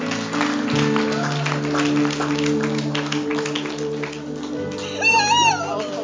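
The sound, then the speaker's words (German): An audience claps for Jesus during a healing prayer service, steadily for several seconds over sustained keyboard chords, with a voice briefly calling out near the end as the applause continues. “Gib Jesus einen Applaus für das, was er schon getan hat.”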